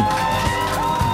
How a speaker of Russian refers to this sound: По легенде, зал оттает только через 10 минут, и вот они, эти первые робкие хлопки.